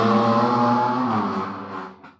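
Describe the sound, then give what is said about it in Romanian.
A car engine drones loudly with a harmonic whine, then fades as it drives past, leaving a brief fainter rumble at the end; no one speaks. “Tocmai a trecut mașina cu scaunul încălzit pe lângă tine.”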